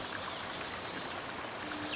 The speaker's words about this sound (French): Et vous entendez au loin, il y a un ruisseau. Vous entendez le bruit de cette eau qui coule. Vous vous en rapprochez. Et vous découvrez cette eau qui coule, qui brille sous les rayons du soleil.